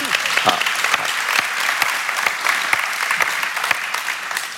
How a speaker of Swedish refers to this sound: Tack för att du är här och nu får du en varm applåd.